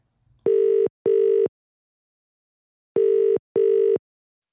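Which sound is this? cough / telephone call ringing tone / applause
telephone call ringing tone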